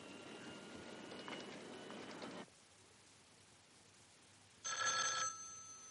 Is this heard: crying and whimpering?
no